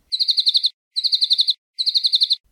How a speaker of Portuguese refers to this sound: Eu vou tocar agora, para vocês ouvirem, o canto do, de um passarinho chamado New Holland Honey Eater, que acontece lá na Austrália também. Esse passarinho é muito maior do que o acantisa, então presta atenção no canto desse passarinho.